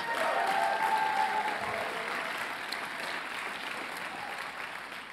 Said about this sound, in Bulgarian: О, ако ръкопляскаш, ръкопляскай, като че го вярваш.